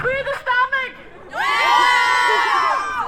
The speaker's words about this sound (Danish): Ja, men bagved os så er der jo en masse demonstranter og aktivister, der går og øh, demonstrerer mod altså, regulering og seksualisering af kvinders kroppe.